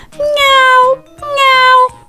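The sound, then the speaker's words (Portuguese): A human voice imitates a kitten's meow twice while telling a story, each call drawn out, high and whiny with a slight downward slide, fairly loud with a short pause between them. “Faz aí o som do gatinho”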